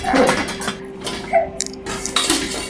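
Pots and pans clatter and clank together in a busy, irregular jumble of metallic hits and scrapes as someone thrashes among them and falls to the floor; loud, with no one speaking.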